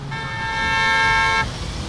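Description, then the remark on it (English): A single sustained car horn blast, loud and steady for over a second, sounds over the low, constant rumble of chronically congested street traffic on Fairmount Avenue in Grantville. “I'm here on Fairmount Avenue in Grantville. It's sort of the gateway to the neighborhood, and it is chronically congested.”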